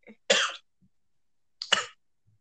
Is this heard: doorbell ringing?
no